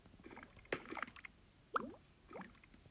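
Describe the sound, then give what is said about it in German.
Dripping lava at a lava farm in a video game at night: a few soft, wet plops and drips at irregular intervals, with a faint low background hum and no talking. “Auf jeden Fall tropft dort die ganze Zeit Lava runter.”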